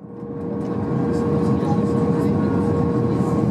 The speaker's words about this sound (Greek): Και έτσι, να με τώρα, αρχές Νοεμβρίου του 1989, μέσα στο αεροπλάνο της Λουφκάνσα, να κόβουμε κύκλους πάνω από το αεροδρόμιο του Αμβούργου.